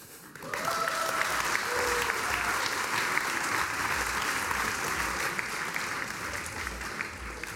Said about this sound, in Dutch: dat het publiek bij die uitzending aan het einde ook altijd even klapt. Dat is in dit geval ook zo.